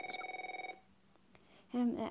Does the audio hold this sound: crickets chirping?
no